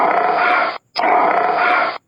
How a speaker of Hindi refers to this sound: शेर को बहुत तेज गुस्सा आया और शेर की नींद टूट गई शेर दहाड़ने लगा